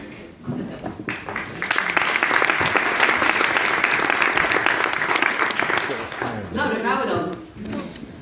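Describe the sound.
Steady audience applause from a crowd at the press presentation of the 73rd edition of the Holland Festival, a dense patter of many hands clapping for several seconds before fading, with a voice starting to speak as it dies down.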